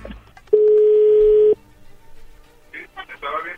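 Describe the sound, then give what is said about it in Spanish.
A single steady, mid-pitched telephone ringback tone sounds for about a second, loud and even, then cuts off; faint voices begin talking shortly after. “Bueno, ya se está marcando, no haga ruido, por favor.”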